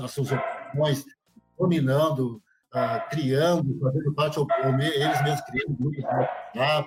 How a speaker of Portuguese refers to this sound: Tem um cachorro latindo aí, não é que não. Quer participar da live.